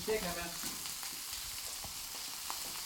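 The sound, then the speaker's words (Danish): Octopus sizzles and crackles in a hot frying pan for about 20 seconds, a steady bright hiss with scattered pops, fairly loud, with a brief tonal clink near the start. “Det er 20 sekunder, den har fået på panden, ikke?”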